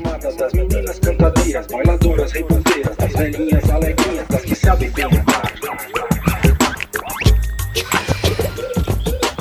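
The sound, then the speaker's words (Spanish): Brazilian and Galician fusion music plays loud, with a busy percussive beat driving steadily under layered melodic instruments, continuous throughout with no speaking. “quiso conjugar todas las conexiones que hay entre la música brasileña y la música gallega.”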